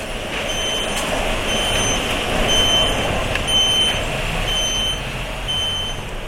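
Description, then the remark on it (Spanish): A large truck that collects donated clothing from textile containers idles with a steady engine rumble where it arrives, while its reversing alarm beeps repeatedly in a regular rhythm, with no one speaking. “Aquí es donde llega el camión que recoge y los contenedores donde tiramos la ropa.”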